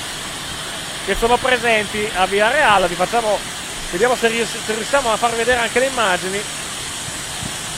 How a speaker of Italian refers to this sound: Ecco, questo è il rumore di un'ora fa dell'acqua e del vento praticamente